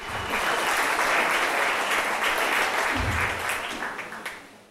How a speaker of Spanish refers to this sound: Démosle un aplauso a la Escuela Dominical, ¿sí?